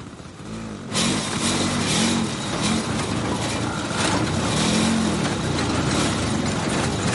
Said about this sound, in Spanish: Un joven conduce con dificultad una moto que tira de un carro lleno de enseres. Otro joven empuja el carro. Circulan por un estrecho camino que une las dos mesetas que separa un barranco.